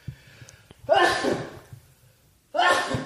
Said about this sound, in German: Außerdem hört man im Hintergrund ähm, dein Niesen